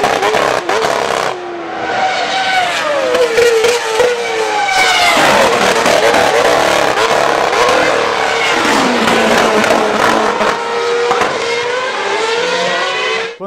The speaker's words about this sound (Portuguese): e algumas delas até remapeando os motores para que, mesmo quando o piloto tirasse o pé do acelerador, o motor de alguma forma continuasse soprando ar quente, que deu origem inclusive a esse barulho esquisito durante as freadas.